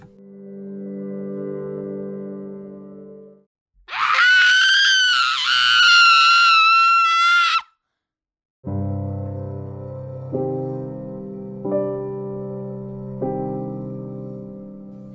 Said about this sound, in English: That's when I hear it. A blood-curdling scream pierced through the silence of the dusk.